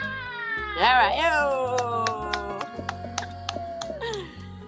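A cat meows in a long, wavering, drawn-out cry that bends up and down in pitch, followed by softer trailing mews, with faint background noise.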